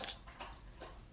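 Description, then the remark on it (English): A dog lapping water, with quick wet slurping laps repeating in a steady rhythm, fairly quiet, with no voices. “that's a dog drinking water”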